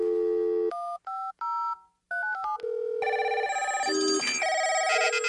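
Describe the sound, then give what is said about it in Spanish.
A quick series of telephone keypad dialing tones, several short distinct beeps in an uneven rhythm, followed by a denser, brighter electronic tone sequence, all loud with no voices. “Es momento de responder la pista y llamar.”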